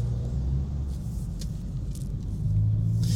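A steady low engine rumble from inside a car moving slowly in stop-and-go traffic at a road fork toward Cologne or Hanover in Germany's Ruhr area, with a dull road drone that swells slightly near the end; brief faint clicks and hisses above.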